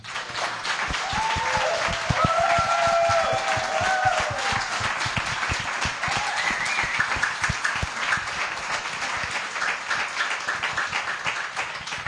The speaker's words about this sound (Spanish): Por eso es más que merecido este pedazo de aplauso.